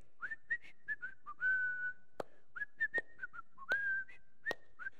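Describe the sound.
Someone whistles a simple tune alone, a string of short chirpy notes broken by a few longer held tones, with a handful of sharp clicks punctuating the melody.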